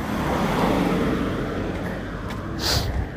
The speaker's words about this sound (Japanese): 車通りましたねえー